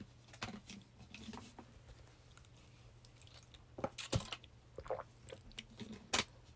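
human body sound, speaker drinking water

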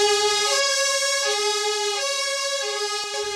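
vehicle, fire engine siren

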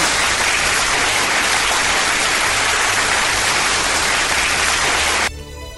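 crowd, applause

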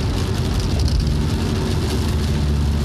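nature, heavy rain

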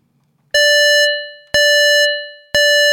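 household object, alarm clock ringing

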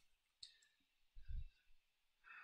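household object, computer mouse double-clicking

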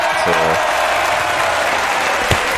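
crowd, applause

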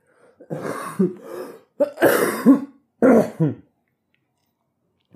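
human body sound, coughing and throat clearing

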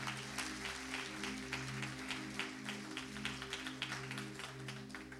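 crowd, audience clapping hands

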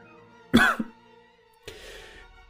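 human body sound, cough

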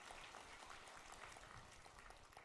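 crowd, audience applauding

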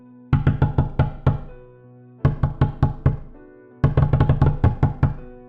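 impact, knocking on a door

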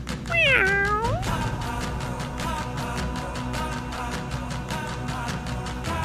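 animal, cat meowing

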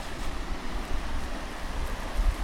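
nature, river water flowing

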